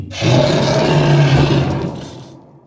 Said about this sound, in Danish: Bjørnen brølede, så det rumlede i jorden omkring den.